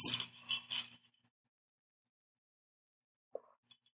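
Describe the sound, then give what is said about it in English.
A few wet sipping and slurping sounds as people sip a vodka and blue curacao cocktail from glasses in the first second, followed by near silence and a single faint click near the end. “And instead of a moment of silence, we're going to take a moment to sip.”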